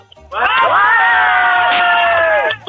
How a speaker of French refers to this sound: Eh bah écoutez, on va se quitter avec les cris de joie de tous vos amis. Je vous laisse, je vous laisse en organisation là. Allez, allez, un cri de joie.